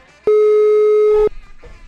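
signal or alarm, phone call ringing tone

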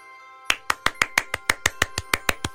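human body sound, one person clapping alone

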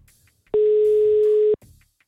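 signal or alarm, phone call ringing tone

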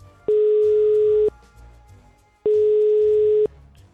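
signal or alarm, telephone ringing tone

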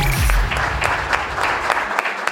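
crowd, applause

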